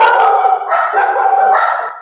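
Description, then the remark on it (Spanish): Several dogs bark continuously in overlapping, excited bursts, fairly loud, with no pause for the full two seconds. “uy, mis perros, están ahí”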